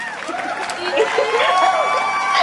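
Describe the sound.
A crowd cheers and applauds for mothers for a couple of seconds, many voices whooping and shouting together over steady clapping, loud throughout.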